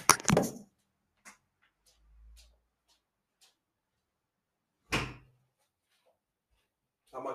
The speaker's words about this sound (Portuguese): Hum, peraí, deixa-me fechar a janela. Peraí, peraí.